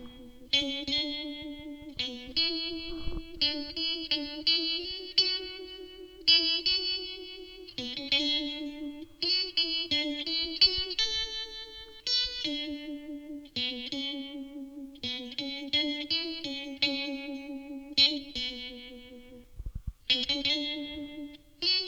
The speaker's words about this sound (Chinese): 那么这个效果器呢，就是模仿那个旋转喇叭的效果器。呃，其实它它翻成中文，这个效果器的名字也可以叫做旋转喇叭。那它到底转成什么样子呢？让我们来听一下。打开这块 Univiber。